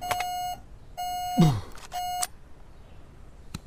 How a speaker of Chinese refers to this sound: 是你的烟雾报警器，迪丽斯。电池快没电的时候，它们就会发出那种声音。